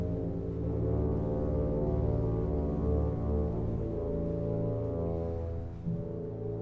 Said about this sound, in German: Mystisch und märchenhaft, fast wie Filmmusik, klingt dieser Beginn von Alexander von Zemlinskis Werk Die Seejungfrau. Kontrabass und Tuba spielen hier so tief wie das Meer